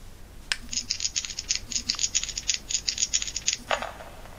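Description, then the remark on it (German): Six dice rattle rapidly together in a series of clicky bursts for about three seconds as they are shaken, then a final clatter as they are rolled out. No talking. “Ein Würfel, schüttel mich. Ah. Sechs Würfel.”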